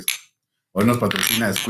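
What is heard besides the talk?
glasses clinking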